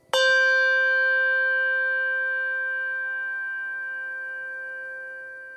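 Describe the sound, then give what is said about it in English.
A Schulmerich handbell with a tang is struck once and rings on alone, a clear, pure tone with bright shimmering overtones that fades slowly and smoothly over several seconds. “Schulmerich bell with tang.”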